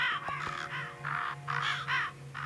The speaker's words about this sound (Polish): To są chmury zbierające się nad miejscem, w którym aktualnie mieszkam. Jakieś kruki? Kruki, ale jakieś ptaszki próbują się przebić, czyli nie, nie, może, nie, nie może być aż tak źle.